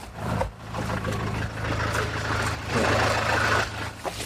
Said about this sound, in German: Ja, hier, der lässt seinen Wagen wieder ranlaufen.